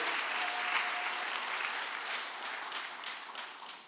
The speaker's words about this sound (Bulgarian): О, ако ръкопляскаш, ръкопляскай, като че наистина вярваш.